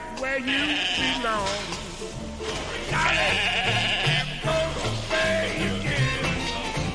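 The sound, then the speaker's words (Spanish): A sheep, the first mammal cloned from an adult cell by scientists at a research institute in Edinburgh, bleats with a wavering, vibrato-like cry, repeated a few times over a dense, busy background of other sound that stays fairly loud throughout. “El animal en cuestión es una oveja y le han puesto por nombre Dolly.”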